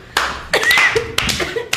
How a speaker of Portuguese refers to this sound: Aí no meio da noite, às vezes eu tava dormindo, começava, o pessoal começava a aplaudir, eu olhava pra baixo e os caras estavam transando.